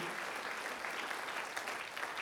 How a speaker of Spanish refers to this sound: amén, aplaudimos al Señor.